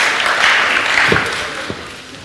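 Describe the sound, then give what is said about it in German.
An audience claps steadily in a dense, sustained burst of applause, loud and even throughout with a few sharper individual claps standing out toward the end. “Könnt ihr sicher einen Platz, äh, Applaus geben.”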